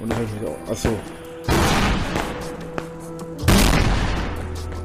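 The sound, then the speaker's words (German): Two sharp, loud bangs of firecrackers thrown onto the grounds of a house, one near the start of the second half and another later, each followed by a broad crackling decay, over a low background rumble. “Hater werfen mit Farbbeuteln auf sein Haus, immer wieder Böller auf das Gelände, Feuerwerkskörper.”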